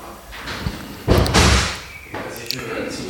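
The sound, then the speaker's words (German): A door swings shut with a single heavy thud that rings briefly before fading, surrounded by quieter rustling and muffled voices. “Er geht wieder zur Tür.”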